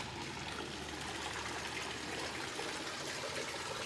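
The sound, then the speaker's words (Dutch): Steady, continuous splashing of a fountain in an inner courtyard bordering the street, at the entrance, a dense unbroken wash of falling water, with no voices and no pauses. “Er staat een fontein. Je hoort het water.”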